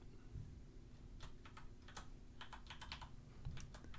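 Rapid, irregular clicks of keys as someone types a search for a Dota 2 screenshot on a computer keyboard, with a low steady hum underneath and no voices.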